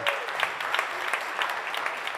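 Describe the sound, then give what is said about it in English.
An audience claps steadily, a dense patter of many hands at moderate loudness that continues without pause for the whole stretch, with no voices. “Let's give our educators a round of applause.”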